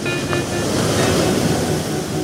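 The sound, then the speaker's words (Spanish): Giant ocean waves crash in a steady, loud roar of surf, a dense wash of white noise with no break, continuous throughout. “Astimunain surfea olas gigantes.”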